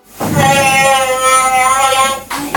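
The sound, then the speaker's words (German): A sonic electric toothbrush, whose head vibrates rather than rotates, switches on and buzzes with a loud, steady, slightly growling hum for about two seconds, then cuts off abruptly, followed by a short rustle. “So, bei der Schalltechnik hingegen, wenn wir uns die mal anschauen, und die mache ich jetzt auch mal irgendwie einmal an.”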